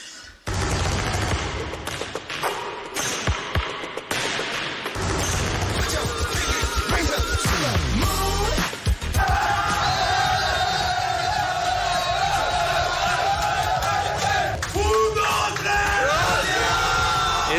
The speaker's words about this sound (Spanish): el sonido de la celebración de los jugadores de Casa de Monzaragoza en el vestuario del pabellón de Luca Murcia, minutos después de conseguir la permanencia en la Liga Endesa.